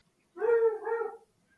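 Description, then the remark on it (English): A dog named Uno whimpers once in a drawn-out, high-pitched whine that dips and rises again partway through, lasting about a second, with no one talking over it. “I'm sorry about my dog back there.”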